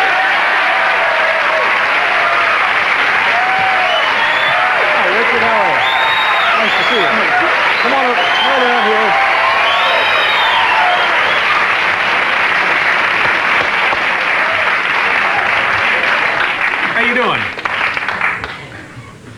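Loud, sustained audience applause with cheering and whoops as guest Richard Kiel is welcomed, a dense wash of clapping that holds steady for most of the stretch before starting to thin out near the end.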